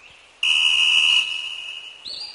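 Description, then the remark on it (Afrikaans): A steam train whistle blasts suddenly and loud, a shrill sustained tone that eases slightly after a moment, then shifts pitch near the end; no one speaks. “Tinie is 'n stoomtrein op sy eysterspoor.”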